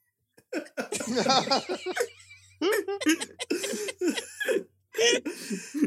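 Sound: coughing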